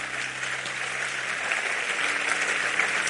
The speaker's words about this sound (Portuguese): Vamos aplaudir a Ele.